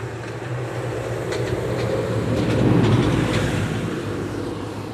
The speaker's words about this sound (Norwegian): Ja. Traktorene kjører forbi her, og de holder på og holder vårt gamle dansk-norske område i stand.